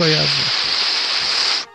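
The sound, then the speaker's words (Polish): A voice imitates radio static with a steady, loud breathy hiss lasting over a second and a half, opening with a brief voiced tone before dissolving into the continuous rushing noise and stopping abruptly. “Potem będzie szumieć, wiesz, w eterze”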